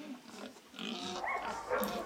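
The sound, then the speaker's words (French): Several pigs grunt and snort in a steady, overlapping jumble inside twelve small pigsties, moderately loud, with the noise swelling a little toward the end. “Les cochons vivent à l'intérieur de douze petites porcheries.”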